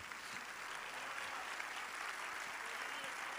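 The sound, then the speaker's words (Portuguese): An audience applauds the Lord after a prayer, a steady, dense wash of clapping that holds at an even level for the whole stretch, with no voices rising above it. “Vamos aplaudir ao Senhor, meus amados.”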